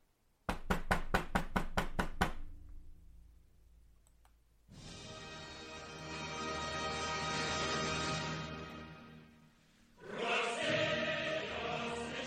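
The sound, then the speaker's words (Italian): A quick, loud run of about eight evenly spaced knocks on a door, then a long burst of loud, dense music that fades and swells again. “Comunque, torniamo a noi. Bussa.”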